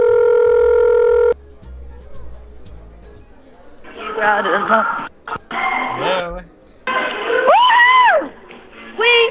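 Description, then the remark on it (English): A loud, steady telephone tone sounds briefly, followed by a few faint clicks and short beeps as a call is placed on a house phone, then voices come on the line, talking and laughing. “let, us call up …”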